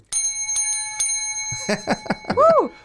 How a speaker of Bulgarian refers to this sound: моля те удари камбаната за мое здраве. Айде, бе, два, три, три камбана ни звъна.